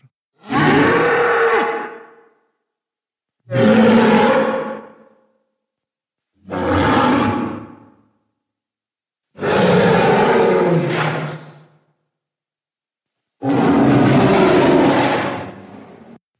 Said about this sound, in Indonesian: tercengang dan merinding mendengar suara lenguhan mengerikan yang membahana di dalam lorong gelap yang tampak tak berujung tersebut.